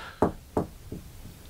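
Four evenly spaced knocks on a door with no one behind it, each one quieter than the last, fading away into silence. No one speaks.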